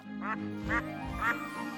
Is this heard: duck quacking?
yes